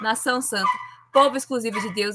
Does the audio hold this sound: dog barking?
yes